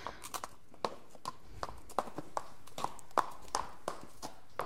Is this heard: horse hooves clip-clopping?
yes